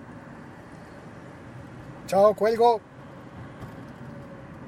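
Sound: car interior noise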